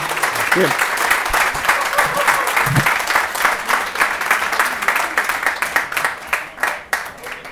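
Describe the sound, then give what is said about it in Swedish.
A crowd applauds steadily for several seconds, a dense patter of many hands clapping that thins slightly toward the end, with no one speaking over it, applauding footballer Fitim Kastrati of Gävle IF after a pre-match interview in Gävle. “En applåd för Fitin Kastrati!”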